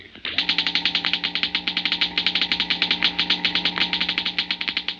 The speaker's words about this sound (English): The crackling comes from a model atom smasher, similar to large models used in treating deep seated cancer and sterilizing foods and drugs.